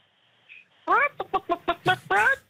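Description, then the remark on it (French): A human voice mimics a rooster crowing: a loud drawn-out cry, a quick run of short staccato bursts, then another long, strained call, all in a couple of seconds. “Est-ce que vous pensez que si je fais le bruit du coq”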